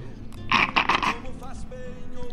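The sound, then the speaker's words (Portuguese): A rough, gurgling slurp of someone drinking mate through a straw, a raspy burst of about a second made of a few quick pulses, followed by quieter background noise. “O ronco do mate faz parte no, dos nossos usos e costumes e esse, por sua vez, da nossa cultura, porque vem vem dos povos, vem dos costumes dos povos que habitavam este continente bem antes dos colonizadores chegarem.”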